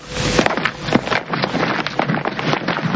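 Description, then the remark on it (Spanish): A section of soldiers' boots strike the ground together in a steady rhythmic march, a crisp crunching cadence repeating over a faint windy background, with no voices. “Empiezan a marchar. Ring intenta acoplarse al paso.”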